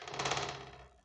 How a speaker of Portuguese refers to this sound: Me desculpem o barulheira, minha gata acabou de subir em cima da mesa de novo. Eu só vou tirar ela daqui e já voltamos a falar.